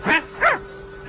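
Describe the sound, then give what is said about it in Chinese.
A dog barks twice in quick succession, two short, loud, bright yaps with a rising-and-falling pitch, followed by a quiet steady hum with no voices. “一会儿，又是嘘的一声，狗嘴里衔着一大口袋的钱回来了。”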